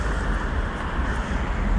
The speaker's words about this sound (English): There's a new car just went past. 8, It stank. It was an electric car.